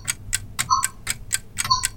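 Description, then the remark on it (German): Several clocks tick at once in a clock shop, their crisp ticks overlapping in a steady, slightly staggered rhythm with no voices. “Eines Tages braucht die Oma eine neue Wanduhr und geht mit ihren Enkeln in ein spezielles Uhrengeschäft.”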